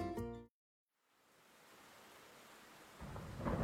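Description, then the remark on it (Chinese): After a brief tonal snippet and a short silence, a steady hiss of heavy rain at night builds up, then a deep, loud rumble of thunder rolls in over the downpour near the end. “一个下着大雨的夜晚”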